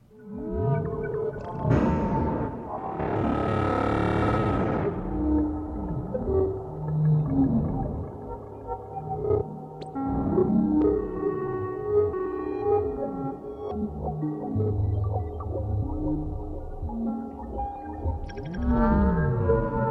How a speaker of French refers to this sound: a utilisé des Krell Patch, alors c'est-à-dire des synthétiseurs qui permettent la granulation en temps réel d'une entrée audio. Cette musique est donc auto-générée et auto-performée. Il n'y a eu aucune interaction humaine pendant cet enregistrement.